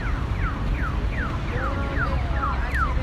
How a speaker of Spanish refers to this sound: El sonido, los semáforos, la señal sonora de los semáforos